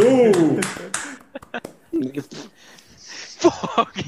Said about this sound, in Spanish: Un aplauso para